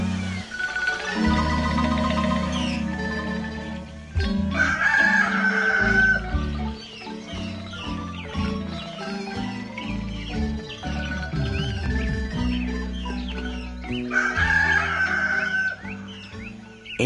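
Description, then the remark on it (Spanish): A rooster crows loudly at dawn, its long strained calls repeating several times over a steady low background rumble, with no one speaking. “la madrugada, del rancho corrió, bajo su último sueño, la raya roja del canto del gallo.”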